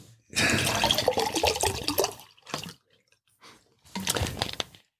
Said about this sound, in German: Oh weia, ich schenke hm? mir schon mal Wasser ein. Ja, schenk dir mal Wasser ein, mach mal.